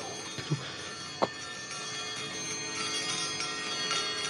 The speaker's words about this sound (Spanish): De pronto, escuchó, no sin terror, que la campanilla comenzaba a moverse y a sonar. Primero suavemente y repiqueteando con furia después, acompañada por todas las campanas que había en la casa.